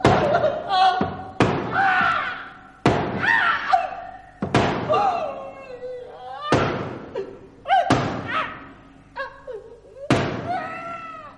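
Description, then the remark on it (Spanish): A wooden door is smashed down hard over a person's head again and again, about eight heavy, loud thuds in an uneven rhythm, each followed by a short voiced cry or groan. “Voy a romper la puerta sobre su cabeza.”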